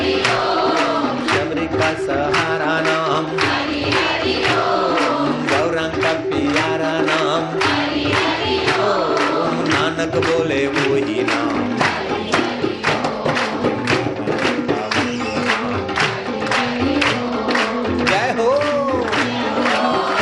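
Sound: audience clapping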